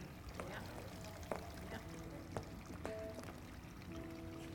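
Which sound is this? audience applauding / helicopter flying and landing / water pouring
water pouring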